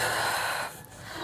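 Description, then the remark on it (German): A heavy, rasping gasp of breath, loud, drawn for over half a second, then a brief lull before another breath starts. No talking. “Atmen.”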